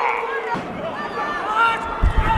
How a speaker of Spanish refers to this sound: Esto que oís, este... Estas son las plantas golpeándose, restregándose, la gente está gritando, para, para, para, no puedo oír esto, no puedo. Es terrible, es terrible eh, escuchar esto y verlo, tiene que ser increíble.